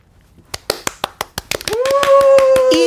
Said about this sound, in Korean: 근데 요번에 그 이모님 회갑은 또 어떻게 하실지 모르겠지만 아무튼 미리 저희가 축하를 좀 드리도록 하겠습니다. 예, 박수 한번 보내주세요.